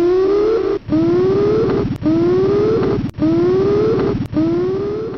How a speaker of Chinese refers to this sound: 就听见一阵激荡的警报从自己脖颈上的仪器传出，音色刺耳，喋喋不休。三分钟过去，这玩意儿始终叫嚣，没有减弱的迹象，就仿佛谎言也分力度的大小。